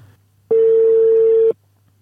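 A single telephone ringback tone as a phone call is placed: one steady, loud, mid-pitched beep lasting about a second, with brief quiet before and after and no talking.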